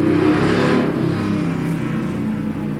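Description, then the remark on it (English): A V8 engine revs loudly, a throaty, rumbling drone with layered low harmonics that surges early and then holds steady, easing slightly toward the end, with no voices. “Pretty high-powered dice. V8 in that bad boy.”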